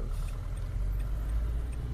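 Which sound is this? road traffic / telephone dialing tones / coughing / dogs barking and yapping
road traffic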